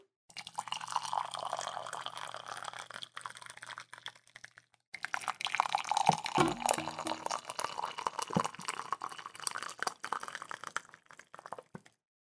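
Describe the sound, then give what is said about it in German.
Hot tea pours steadily from a kettle into a cup, a continuous trickling splash that pauses briefly midway and then resumes, with small drips and clinks. No one speaks. “Und was ich jetzt auch am liebsten hören möchte, ist einfach das fucking Teegeräusch.”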